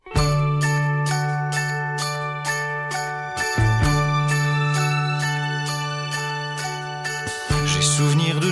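An instrumental stretch of a pop song plays loud and close: a sustained low bass note under bright, evenly pulsing chords, briefly breaking twice before resuming, with no singing or talking.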